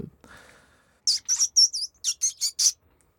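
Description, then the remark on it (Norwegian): A person imitates a mouse by mouth, making eight short, high-pitched squeaks in a quick, uneven series after a soft breathy sound, with no talking. “Hvis det er en liten åker òg, så kan jo musepip være nok.”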